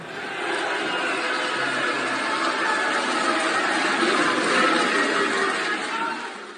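Politicians in the Senate in Rome cheer and whoop steadily for several seconds after narrowly voting down an anti-discrimination bill, a dense wash of many voices shouting and clapping together, swelling slightly toward the end before fading.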